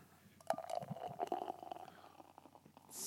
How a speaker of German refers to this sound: Ich schenke erstmal ein, ne? Okay.